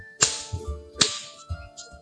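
Two sharp, punchy smacks land about a second apart, each a loud hit with a bassy thud, like a cartoonish punch-in-the-face sound effect, with no talking.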